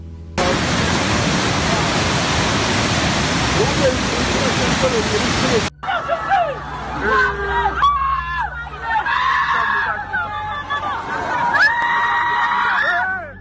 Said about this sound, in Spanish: Estas son las imágenes de Ruanda, donde las calles se han convertido en ríos de agua fangosa, mientras que los habitantes de este país de África Oriental intentan rescatar sus pocas pertenencias para huir a un lugar más seguro.